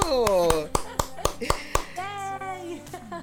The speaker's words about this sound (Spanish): Un gran aplauso, en serio.